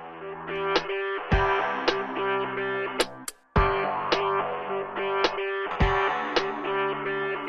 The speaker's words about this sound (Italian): Beh, ce la sentiamo subito questa canzone.